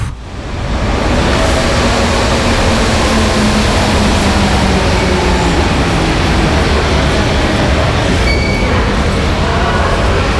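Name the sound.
metro train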